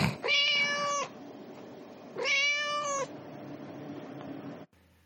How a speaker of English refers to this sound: We just had to stop down because we just discovered that my cat was in the podcast studio right now, and we had to deal with that.